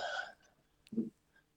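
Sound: drinking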